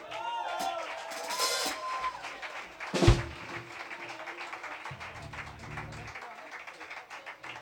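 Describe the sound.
An audience applauds as the Pasajeros show begins, with a dense, steady patter of clapping that continues throughout, mixed with some voices and whoops, and a single loud thump partway through.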